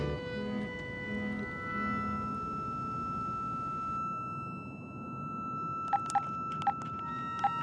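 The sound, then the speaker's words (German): A mobile phone gives four short, crisp electronic beeps near the end as keys are pressed to dial voicemail, set against a steady low background hum with no one speaking. “Zum x-ten Mal höre ich mein Handy ab und hoffe, dass Adrien angerufen hat.”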